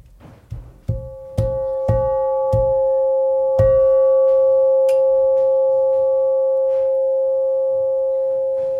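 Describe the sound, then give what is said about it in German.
A harbour bell from the harbour entrance at Meersburg, dating from 1869, struck by its clapper pulled by hand about six times in quick, uneven succession, then left to ring out with a long, steady, slowly fading tone. No one speaks. “Das ist am einfachsten, wenn du unten den Klöppel nimmst genau, und ihn zu dir ziehst.”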